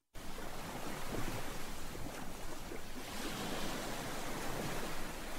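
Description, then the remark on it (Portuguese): Steady roar of sea waves along the shore at Quinta dos Ingleses, a dense continuous wash of surf with gusts of wind buffeting the microphone, no voices present. “e Inês Sousa Real rumou à Quinta dos Ingleses, que está em risco de desaparecer, e foi daí, frente ao mar, que lançou fortes críticas à Aliança Democrática”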